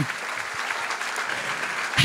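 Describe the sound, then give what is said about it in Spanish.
A church audience claps loudly, a dense, steady wash of many hands holding at an even level for about two seconds, before a voice begins speaking right at the end. “Dale un aplauso fuerte.”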